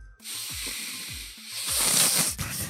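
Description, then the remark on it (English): Someone imitates Donald Trump's heavy, raspy breathing into a microphone: loud, continuous hissing airflow with a rapid series of low, puffing thumps, unbroken for a few seconds. “That's my impression of Trump's fucking horrible breathing shit he does on the mic.”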